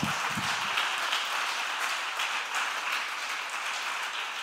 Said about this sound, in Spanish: ¿Hay alguien aquí que va a liderar en tiempos de crisis? Que levante la mano y le dé un aplauso fuerte al Señor. Vamos.